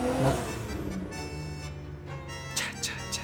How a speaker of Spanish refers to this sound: Las motocicletas, estoy harto.